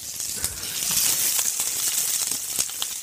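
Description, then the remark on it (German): Prawns farmed in Bavaria sizzle steadily in a hot pan with chili and rosemary, a dense, hissing crackle with scattered sharper pops and spits throughout, fairly loud and continuous with no talking. “Jetzt ist heiß genug. Und dann die Garnelen sieht ein bisschen aus wie Südfrankreich in der Pfanne.”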